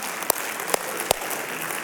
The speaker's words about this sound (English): You may be wondering, why are they clapping to give money? Um, here's why um, we serve a give first God, so we're going to be a give first people.